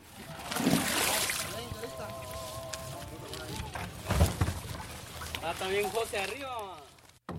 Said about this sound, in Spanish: Uno de los días que estuvimos en Chiapas lo dedicamos a, para ir al río Suchiate, a la frontera, y ahí cruzar a Tecunumán, la ciudad más próxima que está del lado de Guatemala. Nos cruzamos en una de las muchas balsas que van y vienen en el río.